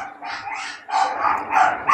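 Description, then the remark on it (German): Several dogs bark outside in overlapping bursts, a steady run of loud yaps and woofs with short gaps, with no one speaking. “Ah, jetzt sind draußen ein paar Hunde, Entschuldigung.”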